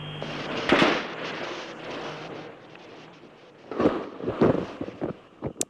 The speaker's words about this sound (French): Alors on l'entend, hein, des combats entre le sud et le nord du Vietnam qui témoignent clairement euh, finalement d'un demi-échec pour ces accords de Paris.